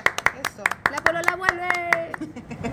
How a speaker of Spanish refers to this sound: Chao, chiquillos. Gracias. Un aplauso.